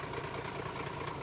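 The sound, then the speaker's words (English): A bulldozer engine runs steadily on the beach at the fishing village of Ngawi, a loud, continuous low rumble with a throbbing mechanical drone and no change in pace, no voices over it. “I'm down at the Ngawi beach and that sound you can hear is the sound of a bulldozer”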